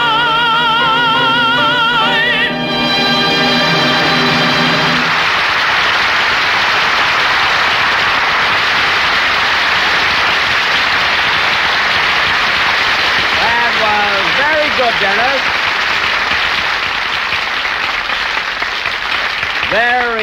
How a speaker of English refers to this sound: its applause.